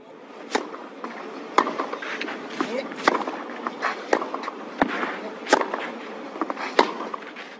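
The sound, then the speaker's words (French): Sharp, crisp tennis ball thwacks from racket hits and bounces on the ground at the French Open tennis tournament at Roland Garros in Paris in June, repeating at an irregular rally pace over a busy background murmur, moderately loud. “On reconnaît bien la balle que frappe la raquette et qui rebondit sur le sol.”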